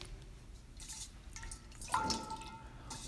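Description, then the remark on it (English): Plain water drips, one clear ringing drop standing out over a quiet, steady background of trickling water, with no voices. “water. I told you it was clear. Now, here, this is just plain water.”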